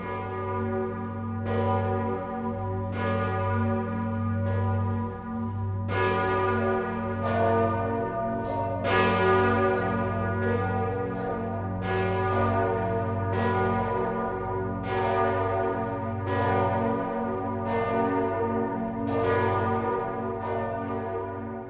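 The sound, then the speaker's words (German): Several church bells in Speyer peal together across the Rhine in a steady, overlapping rhythm, each strike ringing out over a deep, sustained hum that fills the whole stretch. The sound is loud and resonant, with no voices. “Von Speyer schlagen die Glocken eine klingende Brücke über den Rhein.”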